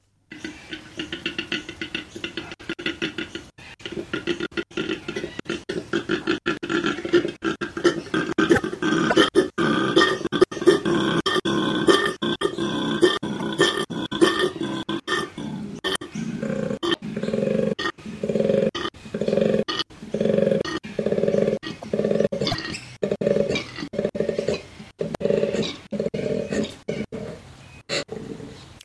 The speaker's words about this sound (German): Das muss ein riesiges Raubtier sein, oder? Klingt zumindest so, nicht? Aber mhm. eigentlich ist es ein relativ kleines Tier. Es ist ein Koala.